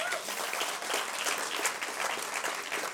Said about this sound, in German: Das ist dein Applaus.